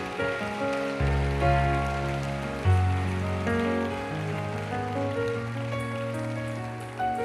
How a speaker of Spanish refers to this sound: Otra persona por acá, un aplauso más fuerte todavía.